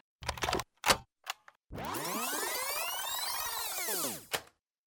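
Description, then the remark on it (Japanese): Setoka mandarin orange peel being grated for morning food preparation: a few short rasping strokes, then one long sustained scrape that rises and falls before ending with a quick final stroke. No voices. “朝の仕込みで使うみかんの皮をすりおろす音です毎朝みかんのいい香りがしますちなみに品種はセトカです”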